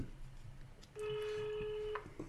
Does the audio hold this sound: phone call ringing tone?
yes